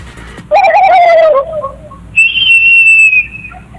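Guinea fowl call out twice, first a loud descending whistled note, then a higher, thin, steady whistle, with no one talking over them.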